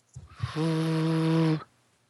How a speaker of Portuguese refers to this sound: Não, não, não é mau contato, é ventoinha de computador.